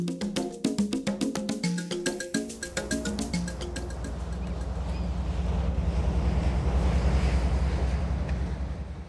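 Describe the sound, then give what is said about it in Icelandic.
Rushing wind and sea waves out at sea in cold weather build into a loud, steady roar over a deep low rumble, after a brief opening of quick rhythmic tonal pulses. No one speaks. “er alveg svolítið kallt að vera svona lengjut á sjó”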